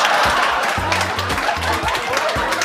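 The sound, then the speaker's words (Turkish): A crowd applauds steadily, a dense wash of many hands clapping at once, with low rhythmic tones pulsing underneath throughout the short burst. “Bravo! Bravo! Alkış. Şak şak şak şak. Alkış.”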